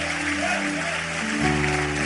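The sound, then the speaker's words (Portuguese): A crowd claps steadily in a dense, continuous wash of applause, with sustained musical chords playing underneath and shifting partway through. “Vamos aplaudir a ele e vamos embora para casa.”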